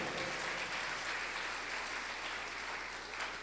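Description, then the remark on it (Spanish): An audience applauds to God in a steady, dense wash of clapping that holds at an even level for several seconds, with no voices standing out. “Fuerte ese aplauso a Dios, por favor.”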